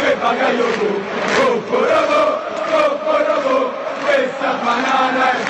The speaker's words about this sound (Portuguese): Bom, essa música da torcida da Lazio, eles começam cantando, né? Poporopô, poporopô, com esta banana é Perbacaiocô. Então, essa banana é para o Bakayoko.